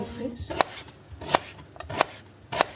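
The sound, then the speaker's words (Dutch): A knife chops firmly through lemongrass on a cutting board while making a boemboe spice paste, four sharp, hard thunks spaced unevenly over a couple of seconds, fairly loud with no talking. “We horen nu het geluid van, de, van het citroengras. Dat is altijd een beetje hard.”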